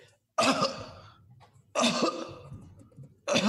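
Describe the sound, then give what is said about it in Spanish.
Three harsh, raspy coughs from the story character Ralm, loud, spaced about a second and a half apart, with quiet breathy pauses between them and no talking. “Y, de, pronto, y de pronto ven como, como Ralm tose.”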